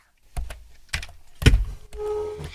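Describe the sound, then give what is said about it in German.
A handful of sharp, clacking keystrokes on a computer keyboard, spaced irregularly, followed by a faint steady hum as the tapping stops. “Das ist Computertippen, aber es war schon richtig schwierig”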